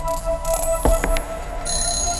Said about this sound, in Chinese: 电话铃声响起，声音从外面传入房间内。打开房门，去寻找电话铃声的根源。这是一栋二层小楼的别墅，电话铃声来自楼下的客厅。